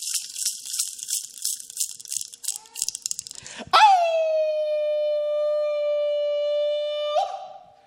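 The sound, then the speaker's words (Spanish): After a few seconds of rapid, rhythmic rattling noise, a person reciting poetry lets out one long, loud dog-like howl that swoops up and then holds steady, clear, before cutting off. “Me gusta aullar cuando recito, como si orinara con leves chisguetes violentando el viento y así bordar varias cuadras con mi hilo de oro.”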